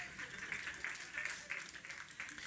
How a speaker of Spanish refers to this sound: Un aplauso al pastor, por favor.